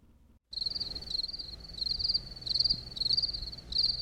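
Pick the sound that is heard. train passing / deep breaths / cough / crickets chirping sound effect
crickets chirping sound effect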